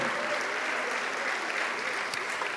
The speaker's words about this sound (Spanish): ¿Cuánto le dan un aplauso al Señor, amado hermano? A su nombre, gloria.